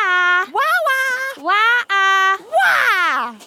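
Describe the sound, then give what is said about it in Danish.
Children's voices loudly call out a drawn-out, wavering creature cry several times in a row, rising and falling in pitch and forceful. In a jungle story, two friends call for Dino by shouting Dino's own sound as loud as they can. “De to venner kalder på Dino. De råber den samme lyd, som Dino siger, så højt de kan.”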